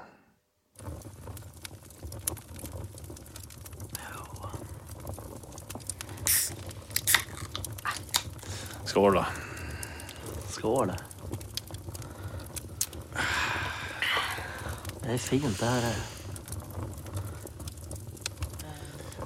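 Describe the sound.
A fireplace fire crackles steadily with sharp pops and snaps throughout, while a few friends chat and toast quietly over beer in front of it.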